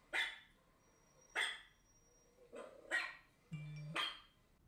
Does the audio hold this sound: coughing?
no